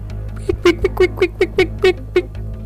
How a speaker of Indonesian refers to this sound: Tiba-tiba aku mendengar suara seperti anak ayam.